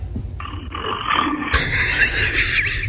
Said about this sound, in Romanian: eu cred că mie mi se pare că e un tractor acolo și bă, poate era pe câmp, mă gândesc.